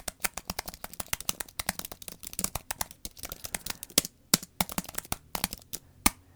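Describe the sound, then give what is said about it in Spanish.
Typing on an Apple Magic Keyboard: a quick, uneven stream of crisp key clicks with brief pauses, a few strikes landing louder than the rest, and no voices. “El Magic Keyboard, porque también se escucha precioso.”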